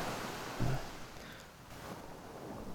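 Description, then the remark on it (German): A steady wash of surf rolls over a beach at sunset as it turns a bit cold, with a soft low thump early on and a faint breeze mixed into the constant hiss. No one speaks. “Guck dir nochmal einen letzten Blick hier aufs Meer.”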